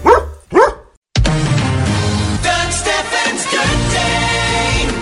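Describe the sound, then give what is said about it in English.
A dog, Barkley from a Southwest Gas radio advert, barks twice, loud, in quick succession; after a brief pause, music kicks in and plays on steadily. “Did that dog just grab a phone and dial 911?”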